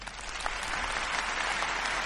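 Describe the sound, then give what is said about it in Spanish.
Steady applause from a group, a dense crackle of many hands clapping at an even loudness throughout, with no voices heard. “Quería que suenen los aplausos y se me fue que decir.”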